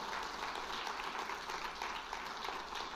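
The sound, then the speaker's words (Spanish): An audience applauds God steadily for several seconds, a dense wash of many hands clapping at once with no individual claps standing out and no talking over it. “¿Por qué no le da un aplauso a Dios?”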